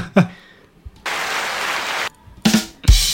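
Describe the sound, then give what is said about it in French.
A short burst of applause sound effect, played by a presenter as a small celebration: a dense wash of clapping that lasts about a second, followed by brief voice-like bursts. “le 30 e ouais, 30 e c'est joli maman je passe un petit applaudissement”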